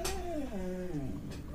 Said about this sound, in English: And that was my dog sausage just made that noise.